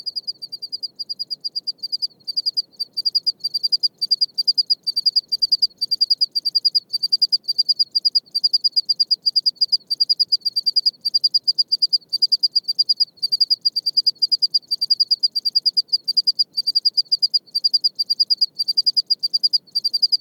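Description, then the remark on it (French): Several desert crickets of an undetermined species chirp in the evening on a reg (stony desert plain), in a steady, fast, distinctive rhythm, a dense series of bright, shrill pulses that continues without pause, clear, over a faint low background rumble. “Donc je les appellerai les grillons du, du reg.”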